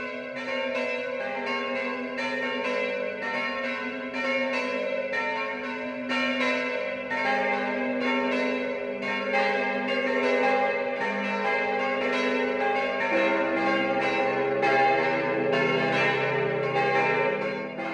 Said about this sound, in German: Es ist 12 Uhr. Das Mittagsläuten kommt heute aus dem niederbayerischen Saal an der Donau.